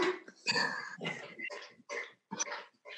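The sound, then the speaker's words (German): A dog laps water from a bowl, a steady run of about seven wet, slurping bursts spaced roughly evenly, with no talking. “Entschuldigung, der Hund trinkt schon wieder.”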